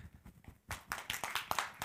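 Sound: applause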